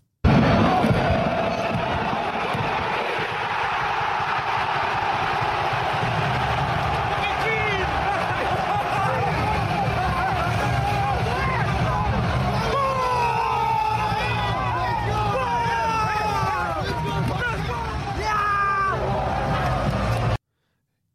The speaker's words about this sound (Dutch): SC Heerenveen, ja, ze wonnen een keertje. En zo klonk dat.